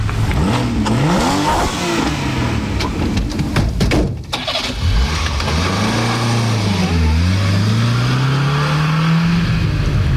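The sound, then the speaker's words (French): A Porsche 991 Carrera S sports car engine revs loudly on the road, its pitch climbing and dropping in repeated surges, with a brief lull partway before it roars and winds up again; no voices. “je suis sur la route avec ma Porsche.”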